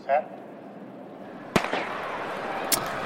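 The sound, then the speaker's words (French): A starting pistol fires to start an athletics race, with a sharp, loud crack that echoes briefly, followed about a second later by a second, quieter snap, over a low murmur of background noise. “C'est un départ, c'est un starter.”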